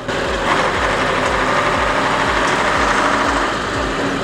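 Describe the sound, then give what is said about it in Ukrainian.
A KamAZ military truck engine rumbles steadily and loudly, a low droning growl with rhythmic throbbing pulses, as the vehicle pulls out of a tree line and drives off under power toward a firing position. “Автівка виїжджає з посадки і їде.”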